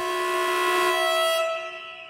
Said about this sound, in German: Der Lärm ist ohrenbetäubend. Punkt 13 Uhr blasen die anwesenden sbw angestellten unter der großen Anzeigetafel der Zürcher Bahnhofshalle in ihre Trillerpfeifen. Und die Lokführer in den Zügen drücken aufs Horn. Eine laute Minute lang.